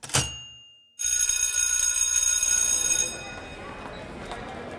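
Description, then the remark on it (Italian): A school bell at Arizona State University in 1960 rings loudly between classes: one sharp strike that fades, then a steady metallic ringing for about two seconds before it stops and faint background noise remains. “Al suono della campana, come liberati da una forza che li teneva incollati alle loro sedie, gli studenti dell'Arizona State si riversano nei corridoi, mischiandosi in un caos frenetico per raggiungere l'aula della prossima lezione.”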